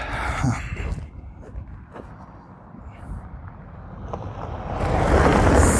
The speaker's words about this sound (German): Jetzt kommt der Auto.